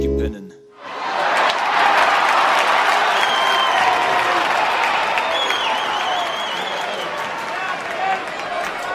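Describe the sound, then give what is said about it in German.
Loud, sustained audience applause from a large crowd, dense steady clapping mixed with a few cheers and whistles, starting after a brief low note and continuing throughout. “Publikum sehr gut an, mein lieber.”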